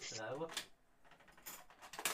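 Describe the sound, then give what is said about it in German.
Coins tossed into a cash box give a few bright, metallic clinks and jingles in short bursts, following a brief voice sound at the start. “Dann werfen wir doch mal ein bisschen Geld hier in die Kasse.”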